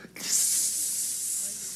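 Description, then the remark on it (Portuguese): A person imitates a snake with one long, steady hiss lasting about a second and a half, loud, after a brief voiced sound at the start. “Era serpente.”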